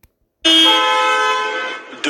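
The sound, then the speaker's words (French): A single loud, sustained car horn blares for over a second and a half after a brief silence, with a short second honk starting right at the end, at a petrol station during a fuel shortage with a lengthening queue of cars. “Dans cette station, les coups de klaxon s'enchaînent.”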